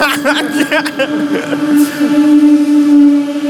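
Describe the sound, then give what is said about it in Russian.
A very noisy electric commuter train passes, a loud, steady motor whine layered over rumbling, clattering noise that fills the few seconds without letting up. “Очень шумная электричка.”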